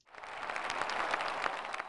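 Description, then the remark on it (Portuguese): Steady applause from a crowd, a dense wash of many hands clapping at once that swells quickly and holds at a fairly loud, even level throughout, with no voices heard. “Essa hora entre os aplausos.”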